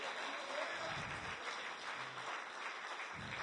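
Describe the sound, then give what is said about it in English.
A church audience claps for the Lord at the close of a service in a dense, sustained burst of applause that holds steady for the whole stretch, a continuous wash of many hands with no clear pauses. “Let's give the Lord one more hand clap before we go.”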